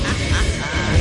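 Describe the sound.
A duck quacks loudly, a rapid, raspy run of calls packed into about a second with no pauses and no talking.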